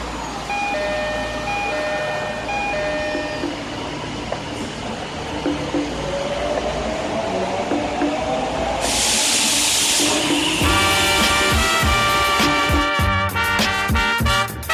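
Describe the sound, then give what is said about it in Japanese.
A short door chime plays over station noise on a Japanese train whose next stop is Shinjuku, then a loud pneumatic hiss as the train doors shut, followed by the rising electric whine and rumble of the train pulling away. “ドアが閉まります手荷物をお引きください無理なご乗車はおやめください”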